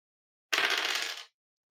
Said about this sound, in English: Roll toughness. Come on, baby. Hot dice.